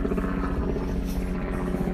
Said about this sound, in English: Oh, hey, helicopters.